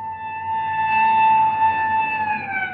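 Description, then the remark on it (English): A police car siren holds a steady, piercing tone throughout, fairly loud, its pitch sagging slightly near the end as the car stops in front of a house. No one speaks. “Look, there's a police car stopping in front of the house.”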